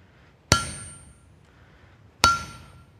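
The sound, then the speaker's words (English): Two sharp, ringing hammer blows on hot metal being forged, spaced nearly two seconds apart, each leaving a bright metallic tone that fades slowly. Nothing else is heard, and no one speaks. “Think about the hammer swing.”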